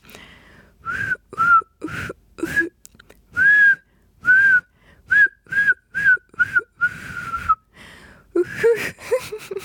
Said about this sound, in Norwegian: Jeg har én tone når jeg plystrer.